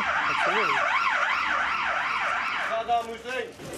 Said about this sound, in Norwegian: Imens vi ser på opptakene, kommer det politibiler og en ambulanse til Husby sentrum.